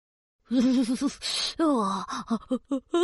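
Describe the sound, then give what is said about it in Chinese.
A voice acts out a bear cub's sneeze: wavering, pitched vocal build-up, then a sharp breathy burst, followed by a string of short voiced grunts and murmurs. “小熊忍不住打了个喷嚏。”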